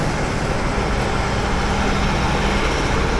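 Dense, steady roar of busy street traffic in Times Square, a constant wash of engines and road noise, with no pauses and no voices standing out.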